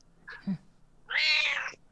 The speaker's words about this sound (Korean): 어, 고양이다. 안녕.